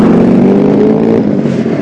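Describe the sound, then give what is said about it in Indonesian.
Motorcycle engines rev loudly and steadily, a dense growling roar with rising tonal whine that stays strong throughout, no voices present, recorded on the road during a commute between office and home. “ya begitu ya ini udah kalau denger gue tuh gue kalau kalau denger suara-suara kayak gitu ya gue pasti ya gue gue mengalah karena ya gue tahu suara gue pasti kalah banget sama suara motor-motor itu”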